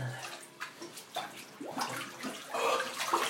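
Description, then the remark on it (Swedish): Water sloshes and splashes in a cold bath as a person gets in, with irregular swishing surges that build toward the end, moderately loud, with no talking. “Snart börjar jag dra på mig vatten här tror jag.”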